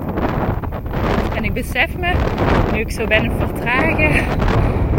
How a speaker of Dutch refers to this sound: Sorry voor de wind. Hopelijk hoor je me nog goed. Ik probeer uh, microfoontje zo goed mogelijk af te dekken.